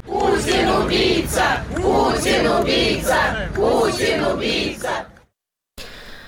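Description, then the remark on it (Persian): A large crowd of protesters in Paris, protesting the death of Alexei Navalny, chants the slogan "Putin is a murderer" in unison, loud rhythmic shouted phrases repeating about every second, then a brief silence before the noisy crowd returns. “معترضان در مقابل سفارت روسیه در لندن فریاد میزنند پوتین قاتل است شعار مشابهی که معترضان به مرگ آقای ناوالنی در برلین و در پاریس هم فریاد زدند”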